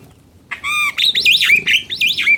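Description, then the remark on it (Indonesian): A black myna gives a loud call: a harsh harmonic squawk, then a run of rapid whistled chirps rising and falling in a looping pattern, with no voices. “Nah, bagaimana dengan burung jalak hitam? Adik-adik ada yang tahu? Kalau belum tahu, ini nih suaranya.”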